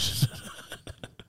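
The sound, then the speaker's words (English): A phone alarm, set as a reminder to take an antibiotic, chirps: a bright electronic tone sounds briefly, then a quick run of short repeating beeps follows in a steady rhythm, moderately loud, with no talking. “Sorry, that was my alarm to take my antibiotic.”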